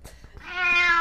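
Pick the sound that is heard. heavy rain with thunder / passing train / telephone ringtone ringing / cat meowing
cat meowing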